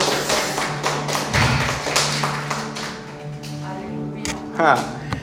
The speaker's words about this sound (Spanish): Alguien tiene que darle un aplauso al Señor.